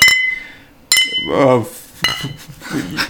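Glass bottles clink together in a shopping bag, three sharp, bright knocks with a ringing tone at uneven intervals, while voices murmur softly between them.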